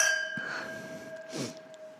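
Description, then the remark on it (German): Glasses of white wine clink together in a toast, leaving a clear, high ringing tone that lingers and slowly fades, with a second softer clink partway through. Nobody speaks. “Ich finde, darauf können wir sofort anstoßen, ja.”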